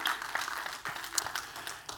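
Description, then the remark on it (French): A church audience applauds the Lord, a dense wash of many hands clapping steadily with a few sharper claps standing out, moderately loud and without any talking. “Et oui, on peut euh, applaudir le Seigneur, certains.”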